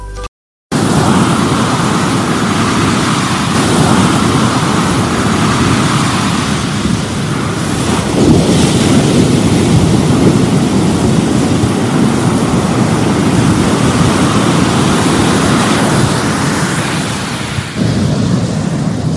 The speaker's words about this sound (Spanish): Estoy acá en las playas de mi querida Guatemala, en las playas del Océano Pacífico, para ser específicos en el área de Monterrico, en el departamento de Santa Rosa.